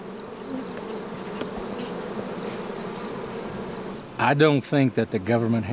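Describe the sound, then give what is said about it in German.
A steady, dense hum of many bees buzzing at beehives that beekeepers are checking for mites fills the first four seconds, then a voice starts talking over the continuing drone. “Auch dafür brauchen sie gesunde Bienen ohne Milben.”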